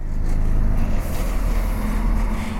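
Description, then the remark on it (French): A bus engine, on a bus travelling toward New Jersey, rumbles steadily and loudly, a heavy low drone with a slight shift in tone partway through, with no one talking. “Il a 19 ans et prend un bus.”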